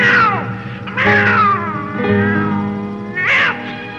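A cat meows loudly, giving about three drawn-out, wavering cries with brief pauses between them, the middle call stretched into a long whine.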